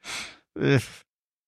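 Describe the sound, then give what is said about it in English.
A single yawn from a man: a breathy, hissing inhale, a short pause, then a drawn-out voiced exhale that slides down in pitch and trails off into silence. “The guy yawning, who's obviously not too excited to be here.”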